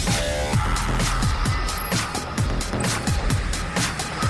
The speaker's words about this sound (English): Six, five, four, three, two, one, zero. All engines running. Commit. Liftoff.